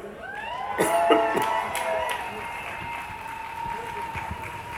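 A crowd at a demonstration applauds a speaker, with scattered clapping, sharp claps bunched in the first two seconds and then thinning, over a steady murmur with some tonal whistling or cheering.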